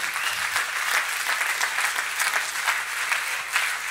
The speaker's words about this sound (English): Uh, before you sit down, can we give all of our sound technicians, all the ushers, if you're an usher, lift your hand. If you're working behind the scenes, can we give them a big old clap tonight? Give them honor where it's due.